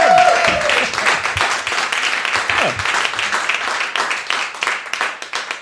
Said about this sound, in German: dann soll er durch diesen Applaus, der jetzt nach dieser Sprachnachricht kommt, äh, soll er zu Tränen nochmal gerührt sein. Deswegen macht es mal nochmal so einen Applaus für die Organisation vom Jürgen, dass er es bis in Berlin hört. Jetzt! Jürgen!